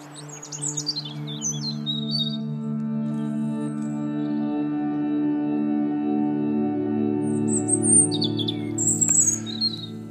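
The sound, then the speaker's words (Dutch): Scattered bird chirps and short trills ring out at the start and again near the end, fairly faint, over a steady, sustained low droning tone that runs underneath throughout; birds heard as the guns fall silent at the end of the First World War in Europe. “En dan, dan is er stilte en zijn er weer vogels.”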